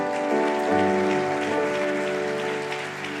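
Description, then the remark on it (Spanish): A steady wash of crowd applause given to the Lord after a prayer, dense and crackly, over sustained keyboard chords holding underneath. It stays fairly loud and even for a few seconds, with no voices. “¿Será que puedes dar un aplauso al Señor?”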